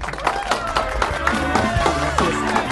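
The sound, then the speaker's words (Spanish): The audience of the show Bla Bla Blue applauds steadily to welcome guest Diana Uribe, a dense wash of many hands clapping at an even loudness, with cheering and voices rising over it throughout. “Así que los invitamos para que se peguen de una vez por todas y para que recibamos con un fuerte aplauso a nuestra queridísima invitada esta noche, Diana Uribe.”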